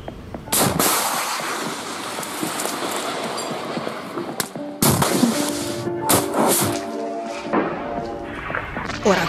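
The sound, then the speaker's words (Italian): Exchange of fire at Israel's northern border with Lebanon: half a dozen sharp, heavy blasts go off at irregular intervals over a constant rumbling, roaring background, with some reverberating echo after the louder reports. “Quelli che state sentendo sono gli scambi di fuoco al confine nord, al confine con il Libano.”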